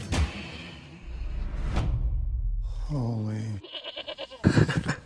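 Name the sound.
goat bleating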